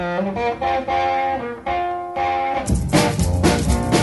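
A twangy, slightly distorted electric guitar plays a bright opening riff alone, then drums and a full band crash in loudly partway through, kicking off an upbeat rock and roll song.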